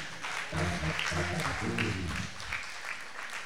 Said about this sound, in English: I didn't ask you to clap, but if you're going to clap, you better clap with passion.